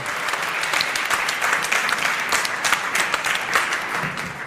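Sustained audience applause for a game show contestant, a dense steady wash of many hands clapping at an even loudness throughout, with no voices standing out above it.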